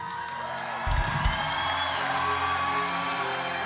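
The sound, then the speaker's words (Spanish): A crowd shouts and cheers together in a sustained, dense roar of many voices, fairly loud and continuous, with a few louder whoops rising above the din. “Grita, grita, hija.”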